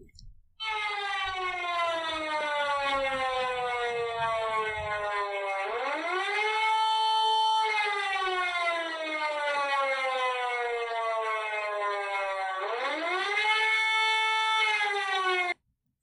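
A sample civil defense warning siren signal wails loudly for about fifteen seconds, its tone repeatedly sliding down and then surging back up in slow, regular cycles, with no voices.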